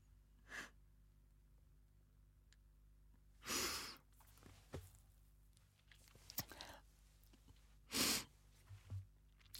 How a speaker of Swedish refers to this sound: Nu börjar jag gråta.